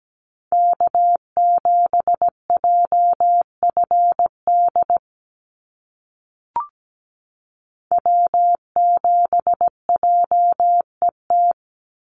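North American SOTA (Summits on the Air) activator callsigns sent in Morse code at about 17 words per minute: a steady mid-pitched tone keyed in crisp dots and dashes, two bursts separated by a pause with a single short click between them.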